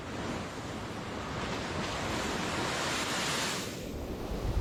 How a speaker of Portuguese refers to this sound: Desde a última quinta-feira, moradores da cidade de Matinhos, no Paraná, assistem à ressaca na beira do mar. À noite, a força das ondas é ainda maior.